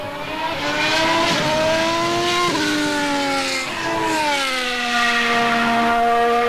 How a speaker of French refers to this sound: son très, très distinctif et très harmonieux quand même. Hein. Oui, oui, et qui euh, a changé depuis 2014 avec l'introduction des moteurs hybrides V6 qui a changé la sonorité des moteurs rutilants de la Formule 1.